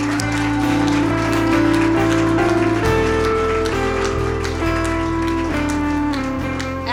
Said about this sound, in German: Come on, nochmal einen fetten Applaus für die beiden.